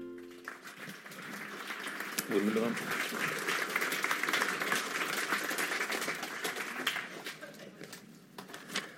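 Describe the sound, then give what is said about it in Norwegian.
An audience at Litteraturhuset in Trondheim applauds steadily for several seconds to welcome speaker Dag Hesten, a dense wash of many hands clapping at once, with a few voices faintly audible beneath before it tapers off. “Ja, det er jo Dag som skal få applausen her, for å vente litt.”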